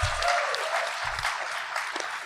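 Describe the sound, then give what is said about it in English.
An audience claps as a guest lists his Star Wars writing credits, a dense, steady burst of applause, many overlapping hand claps forming a bright, sustained wash of sound with no voices standing out. “Don't clap yet.”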